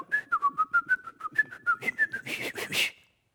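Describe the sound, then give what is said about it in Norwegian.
A brisk whistled rendition of Siegfried's horn theme from the opera, in its energetic form: a quick run of sharp, bouncy notes in a steady lively rhythm, rising to a brighter burst at the end. Clear, with no talking. “Eller når han er blitt ekstra ivrig, så er det”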